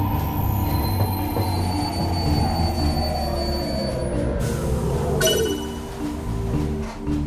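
A subway train brakes into Brás station: loud metallic wheel squeal slides downward in pitch over a heavy rumble, then eases as the train slows to a stop at the platform.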